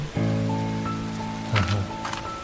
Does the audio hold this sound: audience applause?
no